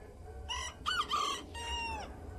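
A rooster crows once, a loud cock-a-doodle-doo in several strained, harmonic-rich segments rising and then trailing off, over a low background rumble with no talking.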